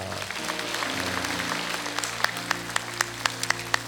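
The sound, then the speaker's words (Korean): A church audience applauds in thanks and glory to God after a prayer, a dense wash of clapping over sustained low organ-like chords, and in the last seconds the claps fall into a steady, evenly spaced beat. “우리 그렇게 역사하신 우리 하나님 앞에 감사와 영광의 박수 올려드립니다.”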